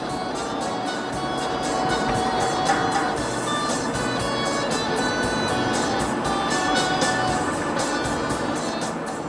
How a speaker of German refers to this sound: Jan sitzt in seinem Wagen und fährt auf der Autobahn Richtung Luxemburg.